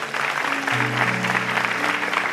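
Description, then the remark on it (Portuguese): A church audience applauds the Lord steadily during a worship service in a dense, continuous wash of clapping, with sustained low tones, likely organ or keyboard chords, holding underneath throughout. “Aleluia, aplaudam ele mais forte.”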